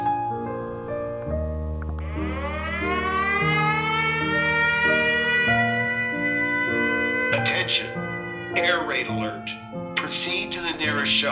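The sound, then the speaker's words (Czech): An air raid siren wails loudly at half past two in the morning, another alarm, its pitch sliding upward and then holding in a long, steady tone over a low droning hum, with a few rough, noisy bursts near the end. “No, takže je půl třetí ráno a máme tady další alarm.”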